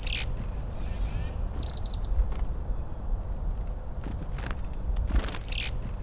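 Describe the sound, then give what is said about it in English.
Several sharp, scolding winter calls of a chickadee ring out in short bursts against a low outdoor rumble, with a harsh buzzy call near the start, middle and end. “At no other time of the year are sounds so sharp the scolding winter call of the chickadee, wind howling through oaks or whispering through pines, the clarion call of wind chimes, piercing as the cold itself.”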